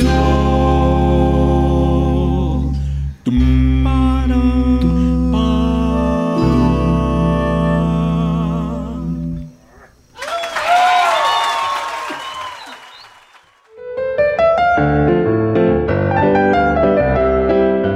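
A live pasillo performance: melodic ensemble music plays steadily, breaks off for a burst of audience applause and cheering, then the music resumes strongly.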